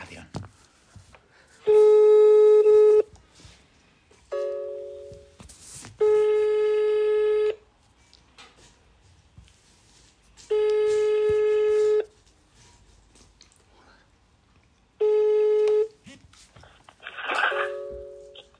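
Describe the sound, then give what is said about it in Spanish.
A phone line's ringback tone while calling the captain of a local football club during a live radio broadcast: loud, steady electronic tones about one and a half seconds long, repeating four times with several seconds of near-silence between them, plus a brief extra beep early on. “Vamos a ver qué nos cuenta, a ver si nos coge el teléfono el capitán y le vamos a hacer un par de preguntitas a ver si nos corrobora este informe.”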